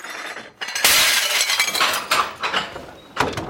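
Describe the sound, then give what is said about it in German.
Glasses and porcelain from a dark wooden, glass-fronted living-room wall cabinet are thrown into a bin, crashing loudly and shattering in a burst of bright, clattering fragments, followed by a few more smaller breaks and a final sharp smash. “Die ganze Wand ein einziger Schrank und noch voller Gläser und Porzellan. Und all das muss jetzt in die Tonne.”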